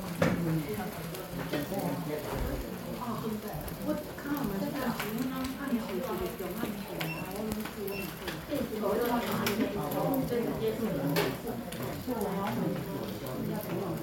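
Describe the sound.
Food sizzles steadily in a hot pan, a continuous crackling hiss running underneath several people talking over it throughout.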